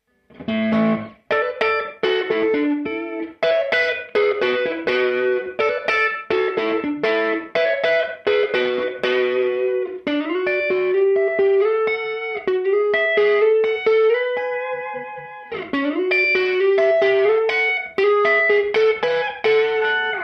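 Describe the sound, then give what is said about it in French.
Crunchy, lightly overdriven electric guitar played with the fingers through a tweed-style preamp pedal, settings unchanged, with choppy chords and single notes, then a stretch of sustained ringing notes before brisk strumming resumes. “Là, on commence juste à faire un petit peu de, de crunch.”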